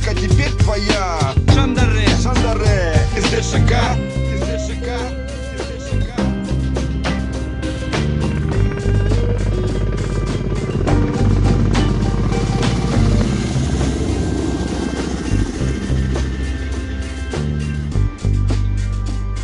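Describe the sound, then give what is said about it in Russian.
A helicopter recorded at a war front: its heavy, throbbing rotor drone runs loud and steady for the whole stretch, thick with low rumble and layered with dense clattering noise, with no speech. “здесь и вертолеты, и выстрелы, все реально записано на фронте.”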